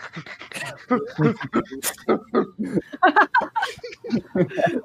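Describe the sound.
A person pants like a dog, standing in for a dog, with rapid, breathy huffs repeating in a steady rhythm, fairly loud, continuing for several seconds.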